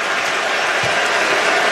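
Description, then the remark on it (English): A dense, steady roar of crowd noise with rapid clapping and cheering at a Creighton versus Marquette basketball game, the crowd trying to rally the Creighton defense, loud and unbroken for the whole stretch, with no clear voices standing out. “Crowd trying to rally this Creighton defense.”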